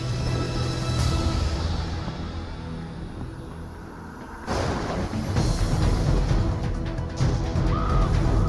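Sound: crow cawing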